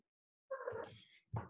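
A cat meows twice: a longer, drawn-out wavering meow followed after a short pause by a brief, sharper one, with no one talking.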